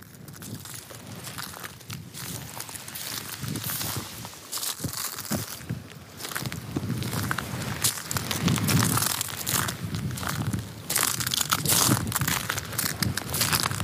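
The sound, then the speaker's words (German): Thick shoes crunch steadily across a shell bank on the beach at Juist, each step a loud, crackling, brittle crush of shell fragments, continuous and uneven with no voices. “Mit dicken Schuhen über eine Muschelbank laufen am Jüster Strand.”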